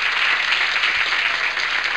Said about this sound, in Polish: To jakieś brawa by się przydały, mamy coś takiego? Mamy. Dziękuję, dawaj.